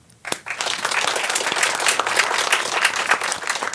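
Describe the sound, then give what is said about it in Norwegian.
An audience breaks into applause after a brief quiet moment, welcoming a director from Nav to the show, a dense, steady wash of many hands clapping that stays fairly loud throughout. “Du får applaus, du òg.”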